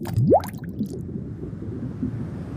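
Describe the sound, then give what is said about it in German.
A single small bubble rises from the depths of the still, murky sea and bursts at the surface with a quick upward-pitched plop near the start, followed by a faint low watery rumble that lingers. No one speaks. “Eine kleine Blase formt sich an der Oberfläche, wird immer größer und zerplatzt mit einem satten Plopp.”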